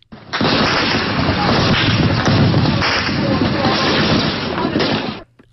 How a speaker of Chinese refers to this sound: 他听到难民营附近爆发出一阵密集的枪炮声，震耳欲聋。